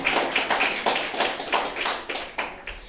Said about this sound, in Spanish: Vamos a dar un fuerte aplauso a, nuestro Señor, porque él, nos, él fue a la acción, ¿verdad?